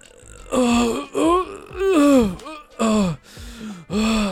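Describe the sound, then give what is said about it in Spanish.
A voice imitates a person straining on the toilet, with a series of about six loud groaning grunts separated by short breathy pauses. No words are spoken. “lo peor y lo más gracioso a la vez es la gente que parece que está pariendo cuando caga.”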